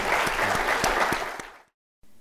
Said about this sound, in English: Uh, but join uh, me in a round of applause for His Excellency for a candid discussion.